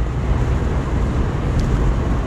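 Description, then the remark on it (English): Steady interior road noise from a car on a 15-minute drive to a Jack in the Box fast-food restaurant: a constant low rumble with a broad hiss layered over it, unbroken and fairly loud, with no voices. “Oh, by the way, I do my podcast when I'm in the car, when I'm doing some, um, like, like this.”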